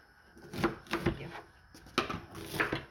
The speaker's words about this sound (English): As we chopped and stirred,